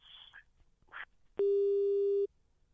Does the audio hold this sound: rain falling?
no